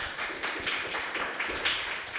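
Steady applause from an audience, a dense patter of many hands clapping at a moderate level for about two seconds, with no one speaking over it.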